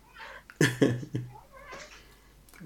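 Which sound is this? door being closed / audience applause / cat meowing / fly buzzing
cat meowing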